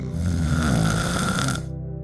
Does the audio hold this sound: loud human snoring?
yes